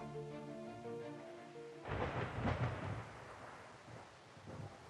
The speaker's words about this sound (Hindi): वो सितंबर की एक बारिश भरी शाम थी अपनी स्टडी टेबल पर बिखरी किताबों और कई तरह की कलमों से थक चुके राधे ने खिड़की से बाहर ताबड़तोड़ हो रही बारिश की ओर नजर दौड़ाई